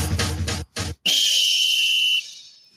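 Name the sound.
referee's final whistle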